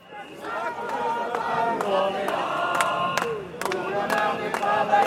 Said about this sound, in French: Samedi 16 novembre 2019, c'est l'acte 53 des Gilets jaunes. Des manifestantes et manifestants en nombre se regroupent à Paris pour manifester et marquer les un an du mouvement.